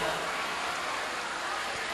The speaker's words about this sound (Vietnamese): những cơn mưa lớn như thế này đó cái không gian của chúng ta nó trở nên nó mát mẻ hơn